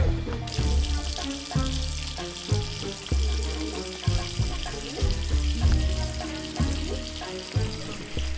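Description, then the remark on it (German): Boiling-hot tap water gushes steadily into a bathtub, a continuous loud rushing with a hollow, shifting resonance as the tub fills. No one speaks. “Während der Regen auch auf die griechischen Terrakotta-Dächer prasselte, prasselte das kochende Leitungswasser in eine Badewanne.”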